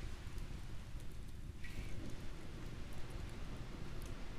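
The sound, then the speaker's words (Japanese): Hardwood burning in a fire pit gives a steady, dense crackle of small pops and snaps, like a soft patter, with no voices over it. “いや今日はいい感じに燃えますねしかし本当なんかいろいろ試したけどやっぱ広葉樹ぐらいがちょうどなんかいいね燃えすぎないというかすぐなくならないし長く燃えますねね”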